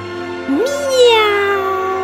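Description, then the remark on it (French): A person imitates a cat with one drawn-out meow that rises quickly and then slowly falls away, voiced clearly with no other talking, made with the mouth open as an exercise to move the face muscles. “Maintenant, ouvre la bouche. Et laisse sortir un miaou comme Léo.”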